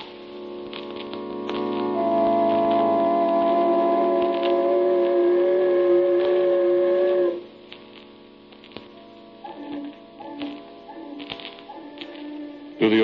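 A long, low foghorn blast drones steadily for several seconds over a constant hiss of falling rain, then cuts off, leaving the rain and a few fainter tones.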